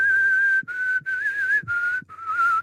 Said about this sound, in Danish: Du har et meget, meget øhm, flot fløjt.